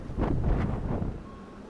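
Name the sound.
railroad crossing warning bell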